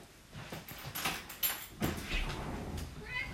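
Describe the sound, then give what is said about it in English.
A back door slides open with a few sharp knocks and rattles over about a second as the cat comes back in, followed by softer shuffling, with a faint cat sound near the end. “That's the cat's back. It's not Pennywise at the back door.”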